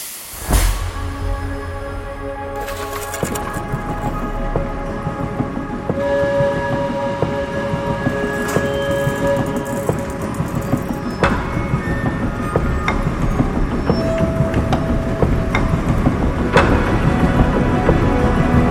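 Heavy machinery at the Luise briquette factory runs continuously and loudly, a dense mechanical rumble with clattering metal and steady whining tones that swell slightly over time, with no voices.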